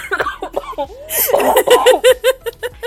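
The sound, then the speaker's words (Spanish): A loud coughing fit tangled with laughter: a harsh burst of coughs, then a run of choppy, rhythmic wheezing laugh-coughs fading out. “Weón, medio tos, medio tos.”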